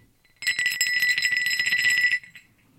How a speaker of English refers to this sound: I myself have been lucky enough to find one complete ringing crotal bell, so just for you, here it is.